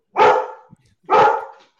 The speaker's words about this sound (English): there's my dog. Mm. No, shush. Hey, you.